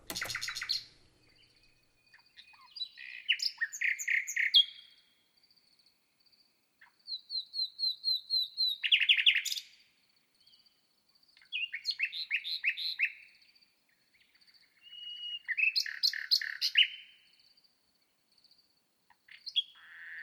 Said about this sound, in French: Et là, ce fut le cas pendant trois heures d'enregistrer ce magnifique rossignol.